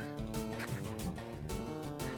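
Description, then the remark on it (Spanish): A cat attacks and bites a dog in a bedroom, with loud, strained yowling and growling in continuous harsh bursts, sharp noisy spikes breaking through every half second or so. “el gato de Daniel lo está atacando no es que le está pegando el gato y el perro”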